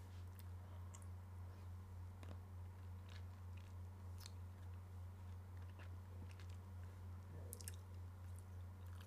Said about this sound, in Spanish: Disculpe porque estoy comiendo huita. Es una solución más rápida que... Bueno, tomar agua.